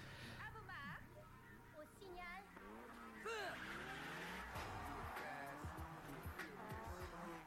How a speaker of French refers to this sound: Un petit extrait de la bande-annonce. Avec toujours des bruits de voiture. C'est étonnant.